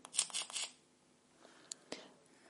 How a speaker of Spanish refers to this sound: Tres clics.